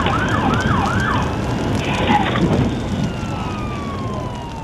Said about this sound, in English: Over the howl of the sirens, you can hear him say, Oh my God. Oh my God.